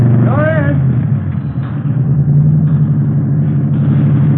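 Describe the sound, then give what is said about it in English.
A custom hot rod, built mostly from salvage car parts, with Mallory ignition, milled heads, twin Wakefields and 120 horsepower, is started and idles loud with a deep, throaty, steady rumble, with a brief rising rev near the start before it settles back into a lumpy idle. “Mallory ignition, milled heads, twin Wakefields. Here, let me start it up for you.”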